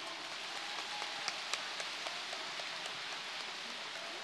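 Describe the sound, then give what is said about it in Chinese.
Steady applause from an audience welcoming Master Jun Hong Lu onto the stage, a dense, even wash of clapping that holds at a fairly loud level throughout, with a few sharper individual claps popping out. No one speaks. “让我们掌声恭请尊敬的卢军宏台长上台。”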